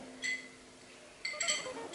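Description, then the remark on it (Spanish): A metal straw clinks against a striped drinking glass: one bright ringing tap, then a quick cluster of higher, jangly clinks about a second later, with no talking over them. “Me gusta mi vasito de vidrio con rayitas y mi popote de metal.”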